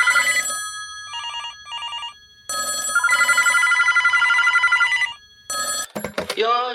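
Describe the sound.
A telephone rings loudly in several bursts of bright, trilling electronic tones, with short pauses between rings, before a voice briefly begins at the end.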